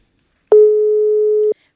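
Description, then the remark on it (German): A single steady telephone tone, a mid-pitched electronic beep held for about one second at even loudness before cutting off cleanly, with no voices. “So, let's call her.”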